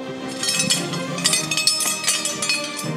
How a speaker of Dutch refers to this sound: vijf medailles die nu de prullenbak in verdwijnen.